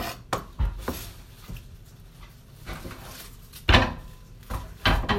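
A knife knocks against a cutting board in a handful of irregular chops through the white, partly green part of a napa cabbage, being cut for lightly pickled vegetables (asazuke), with short quiet gaps between the crisp thuds and no one talking.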